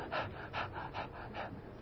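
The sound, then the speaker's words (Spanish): A voice imitates the heavy panting of a tired person short of air, four quick, breathy gasps in a steady rhythm, fairly loud with no words spoken. “La palabra panted es aquel suspiro agitado de la persona que le falta el aire, que está cansado, del venado que ha estado corriendo por las praderas y está sin aire, está jadeando,”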